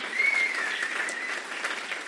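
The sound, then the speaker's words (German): A church audience applauds steadily, many hands clapping in a dense, continuous wash of sound that stays fairly even throughout, with no voices standing out, giving a big round of applause to the people being baptized that day as they stand up. “Und dass wir ihnen einen riesen Applaus geben.”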